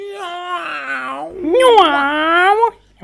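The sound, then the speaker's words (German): A human voice imitates a cat retching and gagging: two drawn-out, strained, wavering vocal heaves, the second louder and rougher, then silence. “Die Katze guckt schon ganz komisch. Katzenwürgen.”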